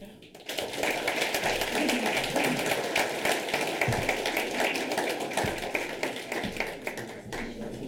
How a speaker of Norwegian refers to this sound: Gi en varm applaus.